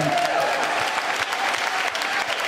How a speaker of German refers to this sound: Komm, lass uns Jesus, diesem Retter, einen Applaus geben.